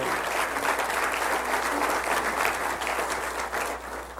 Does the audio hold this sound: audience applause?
yes